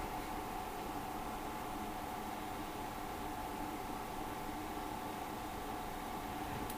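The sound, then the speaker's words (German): The external cooling fan of a just-powered Drobo storage unit runs before its hard drives spin up. It makes a constant whooshing hiss with a faint tonal hum, unchanging in level for the whole stretch, with no voices. “Was man jetzt hört, ist noch der externe Lüfter.”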